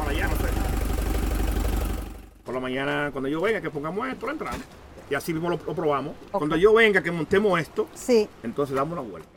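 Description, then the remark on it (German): A boat engine, being checked by a mechanic on board who says it gets too little air, idles steadily and loudly for about two seconds with a low, rumbling drone, then cuts off abruptly as a person starts talking. “hatte einmal kurz den Motor angeschaut oder angehört, besser gesagt.”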